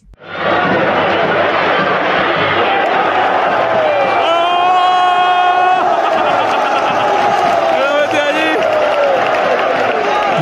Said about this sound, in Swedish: Publikens jubel där på slutet var för ett skott från Federico Valverde som landade bland åskådare på en balkong ovanför arenans kortsida.